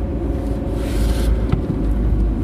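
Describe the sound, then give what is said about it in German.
Steady low rumble of a car's interior while driving, continuous road and engine noise filling the low end, with a brief soft bump partway through and no voices. “Und im Gegensatz zu einem Nackenbügelmikrofon finde ich, also ich möchte, äh, wenn ich beim Autofahren was Podcast, dann dürft ihr das auch mitbekommen.”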